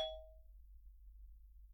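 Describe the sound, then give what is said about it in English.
A doorbell at a home in Dubai sounds once as a grocery delivery man brings a weekly shop, a single bright ding that rings out and fades within half a second, leaving a low steady hum. The chime is fairly quiet and no one speaks. “I was really interrupted there by my grocery guy ringing the doorbell with my weekly shop.”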